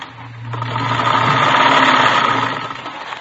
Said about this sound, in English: She was sitting calmly at a sewing machine stitching ruffles on a dress.